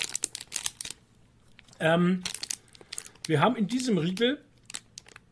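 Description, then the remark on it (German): Crisp crinkling of the firm paper wrapper of a snack bar, in repeated bursts of rustling and crackling, with a person speaking briefly between the handling. “Übrigens, das Papier hört sich so an.”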